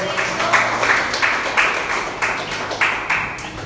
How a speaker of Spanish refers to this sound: Nuestro Señor y Salvador resucitó. Alguien tiene que darle un aplauso al Señor por eso.